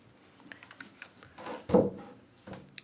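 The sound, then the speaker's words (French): Wooden scraping and knocking as chairs are shifted, a series of small clunks building to a louder thump and drag in the middle, then a few lighter taps. “Pardon pour les bruits de chaises.”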